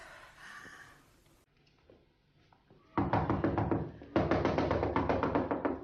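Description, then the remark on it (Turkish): Loud, rapid knocking on a door late at night to wake someone sleeping, arriving in two urgent bursts of fast repeated blows after a quieter opening with faint room noise. “Uyan hadi aç şu kapıyı.”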